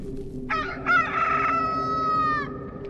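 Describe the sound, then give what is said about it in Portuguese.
A single rooster crows loud: a short rising opening note, then a long, strained, sustained call lasting about two seconds, heard alone over a faint low background rumble. “o galo cantou.”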